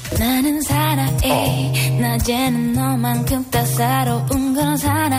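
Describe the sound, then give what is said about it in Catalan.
A K-pop song in a cover version plays loud and continuous, with a steady bass line under bright, layered melodic parts and a full, dense arrangement. No speech, just music filling the whole stretch. “Doncs veu que hi ha una versió que sona així.”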